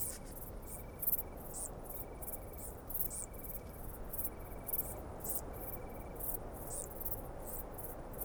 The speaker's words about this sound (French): Alors il y a deux espèces différentes. La Decticelle splendide, qui semble vriller, et la Decticelle cendrée, qui émet comme une étincelle.